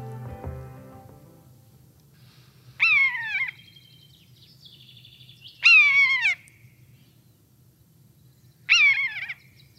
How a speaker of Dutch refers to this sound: Dat is de buizerd. En die horen we in maart.